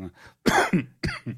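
A loud sneeze: a soft intake, then a sharp explosive burst, followed about half a second later by a second forceful burst, with no talking.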